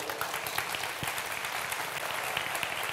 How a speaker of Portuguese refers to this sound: Quem pode dar um glória a Deus e aplaudir o Senhor?